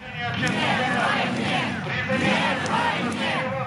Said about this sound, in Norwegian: Nei til krig, ropte tusenvis av russere som tok til gatene i dagene etter invasjonen.